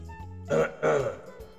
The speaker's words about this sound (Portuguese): Tipo o som de mastigar, o som de tossir ou de simplesmente o cara tá do seu lado limpando a garganta, assim.